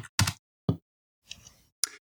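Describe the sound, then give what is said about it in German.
A computer mouse clicks about five times at an uneven pace, each a short, sharp, bright tick, with silence between them and no talking. “ja, ich sollte jetzt nicht klicken, während das Aufnahmeprogramm im Vordergrund ist.”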